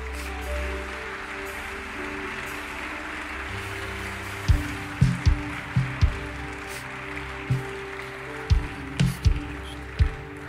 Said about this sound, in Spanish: ¿Por qué no le das un aplauso?